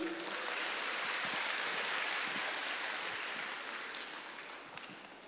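A speech event audience applauds steadily to welcome the next speaker to the stage, a dense crackle of many hands clapping at once, sustained for several seconds before gradually thinning and fading. No voices are heard.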